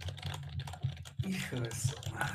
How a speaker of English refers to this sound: And all of a sudden, I hear sounds of a keyboard right next to me. There's another cubicle next to me.